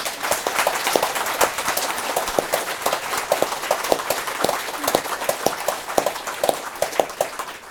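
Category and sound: crowd, audience applause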